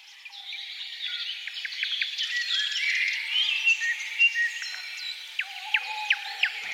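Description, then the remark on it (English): A dense dawn chorus of forest birds deep in a forest in Poland, echoing through a cathedral: many overlapping songs, trills and sharp chirps filling the air continuously at moderate volume, with no voices present. “We take you now to a bird symphony at the break of dawn deep in a forest in the heart of Poland.”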